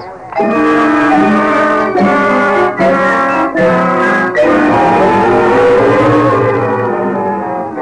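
car driving on highway

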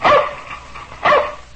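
dog barking

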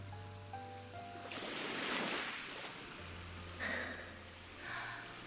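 ocean waves

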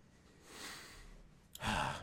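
dog snoring

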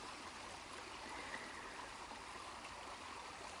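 river stream flowing

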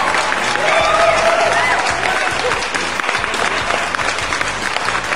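applause

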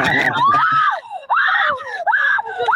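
person screaming

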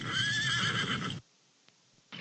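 horse neighing

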